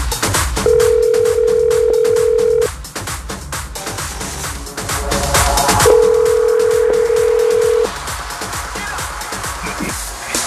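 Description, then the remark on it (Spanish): A steady telephone tone sounds twice while a call is placed to someone in the state of Utah, each long two-second hum separated by a pause, clear and loud over constant background noise, with no one speaking. “Vamos a hacer una llamadita aquí en el estado de Utah y vamos a ver si tenemos la dicha de que este compañero nos escuche o nos conteste, ¿verdad?”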